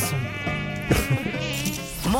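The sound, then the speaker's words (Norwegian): A malaria mosquito's high, whining buzz drones continuously for about two seconds, its pitch wavering slightly up and down, loud and steady with no talking over it. “Malariamyggen har kommet til Hellas.”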